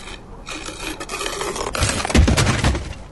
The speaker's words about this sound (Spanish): La que nos faltaba. El cajón trabado en la puerta.